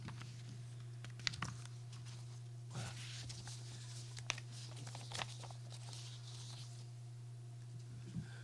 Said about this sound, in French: Alors pardonnez-moi une seconde de remettre mes feuilles d'examen en place.